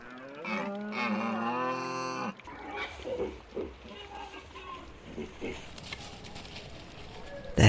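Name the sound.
cattle mooing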